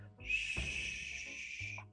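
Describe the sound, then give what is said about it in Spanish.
A barn owl, a Chilean bird, gives its hissing call: one long, breathy, airy screech, held steady for under two seconds, with no talking. “Y cuando se le escucha, el sonido que hace es.”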